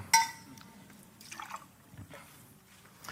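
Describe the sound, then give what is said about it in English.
A glass clinks once, then liquid splashes and trickles into it in short uneven bursts, fairly quiet, with no one talking. “and he says, Let me pour you something to drink.”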